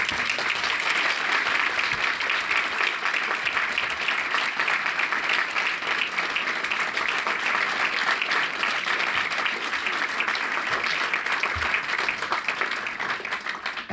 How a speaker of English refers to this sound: So we give a round of applause.